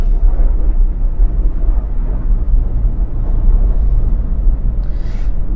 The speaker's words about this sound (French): Alors, on entend même les avions à l'extérieur.